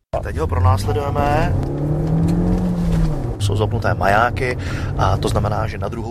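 A car engine revs hard, its pitch climbing and dropping in surges over a steady low rumble, loud throughout the few seconds with no pause. The car is being pursued with sirens on during a Czech demonstration of a system for switching off car engines remotely.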